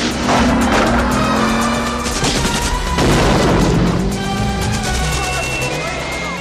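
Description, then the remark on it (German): A loud grenade blast strikes around the middle, set within a dense, roaring action film soundtrack of rumbling engines and crackling impacts that stays loud from start to finish. “Und, und dann der, der Treffer durch die Granate.”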